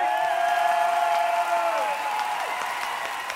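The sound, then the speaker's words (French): A concert crowd ambiance, played to set a show atmosphere: the crowd applauds and cheers in a dense, steady roar, with sustained shouts and whoops that rise above the clapping and slide downward in pitch, staying loud throughout. “si je vous mets une petite ambiance de spectacle”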